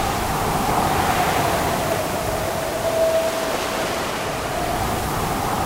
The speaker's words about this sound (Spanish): Muy bien. Ahora viento. más viento.